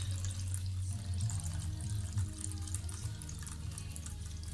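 Water flows steadily and continuously, like a running tap or stream, with a full low rush and bright splashy texture throughout; no voices.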